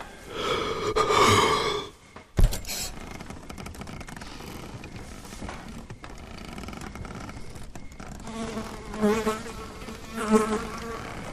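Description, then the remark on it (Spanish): A housefly buzzes with a wavering, droning hum that fades and swells as it moves, broken once by a sharp click, with no voices. “Es curioso que el silencio sea como la hoja de papel en blanco, en donde se perciba y deposite el zumbido de una mosca.”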